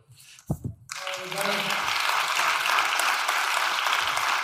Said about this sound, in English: You can't see the people, but I hope you can hear their applause.